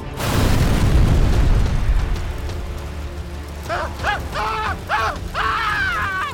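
A loud explosion of a speeding car that has overturned bursts out at once, a heavy booming roar that rumbles and slowly fades as the car catches fire, followed by a few short, wavering cries rising over the lingering rumble.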